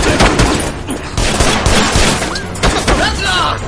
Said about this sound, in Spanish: Los infiltrados continúan en un fuego cruzado frente a la puerta.